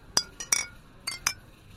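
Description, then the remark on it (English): Glasses clink together in a toast to a deal, four bright ringing chimes spaced irregularly over a couple of seconds, with no voices. “He says, uh, uh, "I want to offer a toast to uh, to our deal and, and, to our new relationship." And he raises his glass.”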